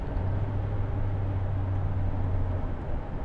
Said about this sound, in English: Um, okay, we're picking up a little bit of speed, folks. You can probably hear it because this car is made of paper.